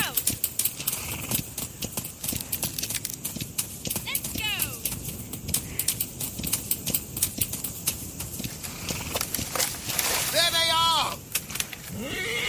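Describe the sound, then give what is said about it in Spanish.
Rapid, steady hoofbeats of a horse galloping in a video game, ridden to escape pursuing soldiers, loud throughout, with a couple of short whinnies rising above the pounding rhythm. “Aquí lo que tenemos que hacer ahora a continuación es correr en el caballo y tratar de evitar que nos, alcancen los soldados para que nos maten o nos secuestren.”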